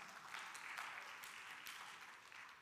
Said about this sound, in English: Cue the ob- obligatory applause.